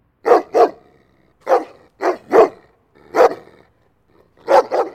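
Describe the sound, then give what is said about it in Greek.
A dog barks aggressively in sharp bursts, often in quick pairs, with short pauses between volleys and a faint growl underneath, as a stray dog roaming the area attacks and bites a man at night. No one speaks. “Ο σκύλο με το κομμένο αυτή που περιφερόταν εκεί τριγύρω, όρμησε εναντίον του και τον άρχισε στι δαγκωματιέ, αναγκάζοντά τον να μ' αφήσει.”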